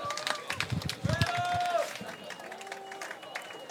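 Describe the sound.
Audience applause: a dense, steady patter of many hands clapping for a few seconds, loudest early on and then easing slightly, with some voices and cheers mixed in.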